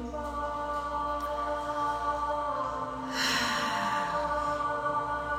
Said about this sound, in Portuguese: Puxa o ar pelo nariz.